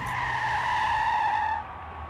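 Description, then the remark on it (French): A loud, sustained tire screech as a bus skids to a stop beside a stadium in Colombes in the Paris suburbs, holding a steady squealing pitch for about a second and a half before cutting off, over a low engine rumble. “Le bus se matérialisa le long d'un stade, celui de Colombes en banlieue parisienne.”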